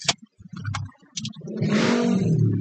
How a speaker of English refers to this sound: So sorry, you know I am recording in my car, so I tried to it's kind of hot, so I opened the window, but then the road I'm beside is quite loud, so let's not do that anymore.